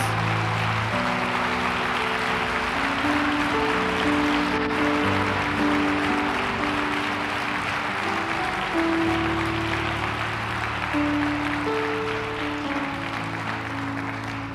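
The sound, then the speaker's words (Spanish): A church audience applauds God steadily for about fifteen seconds, a dense, even wash of clapping at a constant loudness, with sustained low keyboard or organ chords playing underneath. “Ya das un fuerte aplauso a Dios.”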